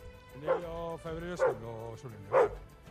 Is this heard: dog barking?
yes